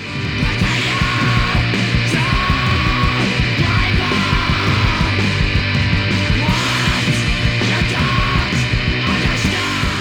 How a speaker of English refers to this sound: uses the best parts of hardcore screaming vocals, lightning speeds, and crunchy riffs. Better yet, five out of the seven songs on the EP are even under one minute.